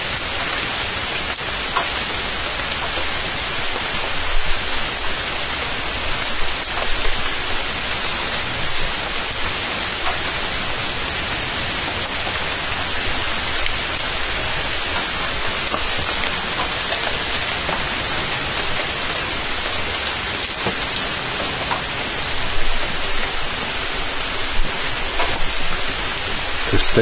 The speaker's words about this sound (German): Aber der Regen bleibt. Hier regnet es sowieso nur zweimal. Einmal auf die Blätter und dann von den Blättern. Also es wird noch ein bisschen dauern, bis dieses Rauschen weg ist.